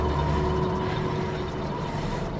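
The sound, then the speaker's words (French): A propeller airplane engine drones loudly and steadily, a continuous labored hum with a buzzing tone layered over a rough roar, and no voices. “Contrôlera tous que t'as un petit quelque chose sous le moteur. Que t'es un sacré engin.”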